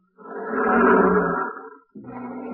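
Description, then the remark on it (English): Lions roar loudly about 15 feet away, one long rumbling roar that swells and fades, followed by a brief pause before a second roar begins. “Oh, here come the lions.”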